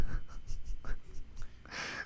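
A pen scratches across paper in short strokes, with a few quick scribbling bursts ending in a longer, brisk scrawl.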